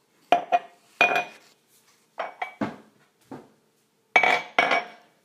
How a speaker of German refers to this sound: Also als erstes brauchen wir Gläser. Ich habe jetzt vier Gläser, weil ich mache vier Portionen. So, ich hole sie mal raus.